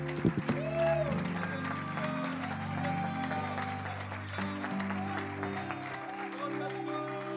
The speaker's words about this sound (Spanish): Dáselo fuerte al rey. Yo me uno a ese aplauso.